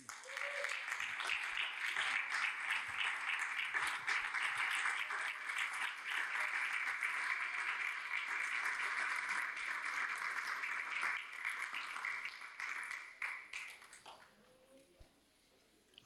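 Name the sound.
audience applauding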